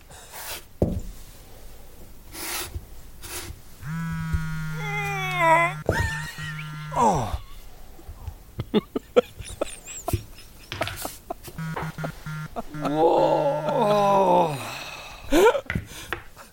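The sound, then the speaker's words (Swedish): A voice imitates a man sitting at a table groaning, with drawn-out, wavering moans and strained vocal noises, rising and falling in pitch over several bursts, moderately loud. “sitter Hans Niemann där och bara stönar”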